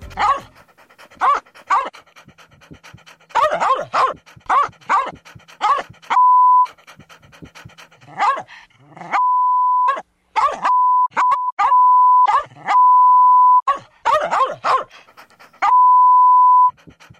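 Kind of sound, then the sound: animal, dog panting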